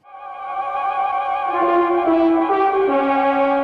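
A short instrumental music break on the Nova Noir programme, with sustained, rich tones and a slow melody stepping between notes, playing steadily at moderate volume with no voices.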